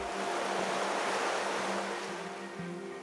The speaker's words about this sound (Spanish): El mar. A veces nos olvidamos lo importante que es cuidarlo.